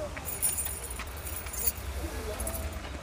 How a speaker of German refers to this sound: Jetzt stehen Ja, sie auf, weil deine Frau gerade mit dem Schlüssel klingelt. Die reagieren also auch auf solche Dinge.